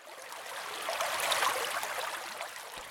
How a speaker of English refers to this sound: The amount of water runoff is increasing. Please bear with me as I attempt to get a soundbite.